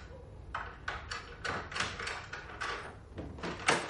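The street door of a house is opened, someone enters, and the door is slowly shut, producing a run of about a dozen short scraping clunks and rattles at an uneven pace, moderately loud, with no voices.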